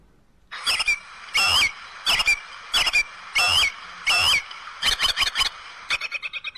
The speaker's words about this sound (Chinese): 这是一种鸟的叫声，答对了。那么具体的说呢，这是知更鸟的叫声。